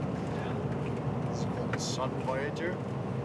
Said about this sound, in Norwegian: Vi kjører gjennom det vulkanske landskapet øya er så kjent for. Vinden river i den store bilen.